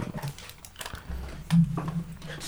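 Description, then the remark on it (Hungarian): A dog makes a few short, muffled barking sounds in the background, irregular and moderately quiet, with some low rumbling noise and faint voices mixed in. “Csak majd ne felejtsem el kinémítani szegénynek a mikrofonját, hogy mondjuk a kutyókatás legyen a háttérben”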